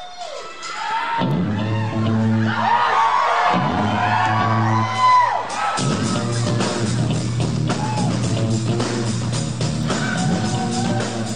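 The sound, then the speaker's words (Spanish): A live concert crowd of fans in Porto screams and cheers loudly over a band's deep, repeating bass line intro, the roar staying dense and steady for the whole stretch with scattered whoops rising above it. “Esa introducción con el bajo ya hace estallar en gritos a los seguidores, a los fans de unas chicas y un chico”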